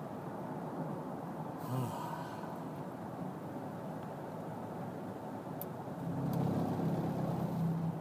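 Steady low rumble of road and engine noise from inside a moving car, with a deeper engine hum swelling louder toward the end. No one speaks.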